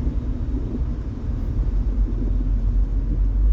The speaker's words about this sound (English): you can honk all you want. This this traffic, I, I have nowhere to go.